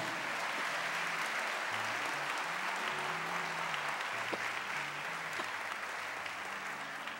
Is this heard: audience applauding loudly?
yes